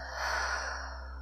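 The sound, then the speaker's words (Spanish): A long, deep breath pushed out through the mouth in a guided breathing exercise, after a deep inhale through the nose and a held breath, a soft breathy rush that swells and then slowly tapers off, clear with no talking. “Y por la boca soltamos.”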